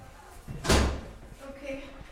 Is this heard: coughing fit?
no